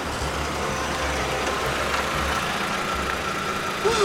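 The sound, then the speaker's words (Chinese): A car engine hums in a low, steady rumble beneath a wash of hiss as a car approaches in the rain, holding a constant level for about four seconds before swelling slightly at the very end. “好像有车开过来。”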